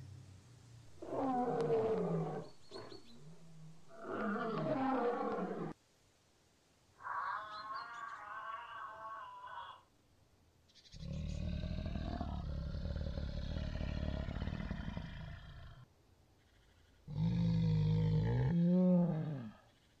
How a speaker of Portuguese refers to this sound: Animais selvagens. Wild animals.